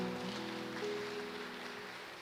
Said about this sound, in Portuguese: Posso receber ele com uma salva de palmas?